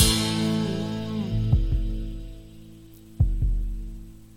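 A deep, muffled heartbeat in a song thumps in slow paired beats, lub-dub, twice over a sustained low musical drone, each pulse soft but distinct, marking the pulse of the music.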